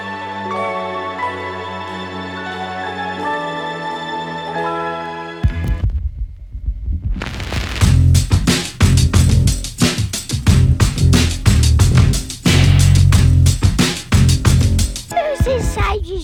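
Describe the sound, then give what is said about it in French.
A rock song opening: sustained synth-like chords ring for several seconds, then heavy pounding drums and a loud, dense full band crash in and drive steadily on. “un disque qui part dans pas mal de directions, de la pop au heavy metal en passant par le hip-hop. On en écoute un extrait”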